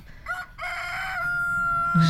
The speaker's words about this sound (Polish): żeby miał swobodę piania. Tak ten biały kogutek to jest Laki. Imię nieprzypadkowo nadane, bo kogutek, który przyjechał do mnie kilka miesięcy temu, bo był zagrożony przejściem do rosołu